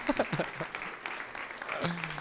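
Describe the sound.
A room full of people claps in a steady, dense patter of applause, with a brief voice near the start and a low hum entering toward the end.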